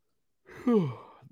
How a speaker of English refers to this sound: Sorry, big yawn there.